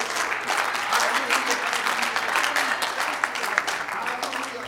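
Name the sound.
audience clapping hands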